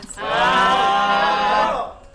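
A single long, loud cow moo, drawn out for nearly two seconds with a steady, resonant tone before fading away, heard on its own.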